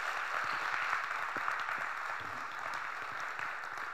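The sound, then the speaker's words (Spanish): A crowd applauds steadily for about four seconds, a dense, even wash of many hands clapping at once, holding its loudness throughout with no voices on top. “Dale un aplauso fuerte, dáselo bien fuerte.”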